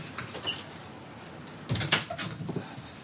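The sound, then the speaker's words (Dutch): A balcony door is slid and pulled shut, a short scraping rattle building to a firm clunk around the middle, followed by a few lighter knocks in otherwise quiet surroundings. “maar ik doe eventjes deze deur.”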